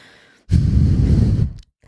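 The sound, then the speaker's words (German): A person imitates a dog loudly snorting to be let under the bed blanket, with one forceful, breathy blast of air through the nose, lasting about a second, prominent, with no talking. “Dann, äh, dann schnauft die erst so ganz laut so.”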